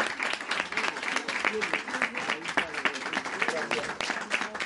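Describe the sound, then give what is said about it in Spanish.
A crowd breaks into sustained applause, many hands clapping in a dense, steady patter for several seconds, with faint voices mixed underneath. “Un aplauso para”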